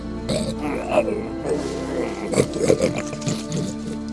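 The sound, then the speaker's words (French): A wild boar in a forest grunts and snorts repeatedly, rough guttural bursts coming in an uneven rhythm over a low continuous rumble. “Un sanglier grogna soudain.”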